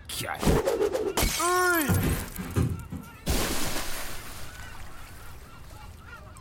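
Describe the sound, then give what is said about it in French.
A champagne bottle smashes loudly against a ship's hull to christen the RMS Titanic at its launch, with sharp shattering crashes and a brief tonal call in between, followed by a fading noisy wash. “la bouteille de champagne qu'on casse sur la coque pour inaugurer le bateau.”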